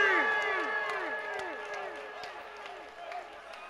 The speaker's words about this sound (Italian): Vorrei sentire l'applauso